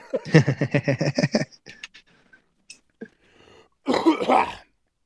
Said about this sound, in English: I'm going to clear my throat here because that sounds really gross. Hang on.